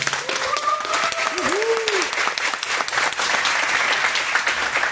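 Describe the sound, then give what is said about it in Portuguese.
A round of applause: dense, steady clapping from a group fills the whole clip, with a few whoops and rising cheers in the first two seconds. “Salva de palmas para eles, vai.”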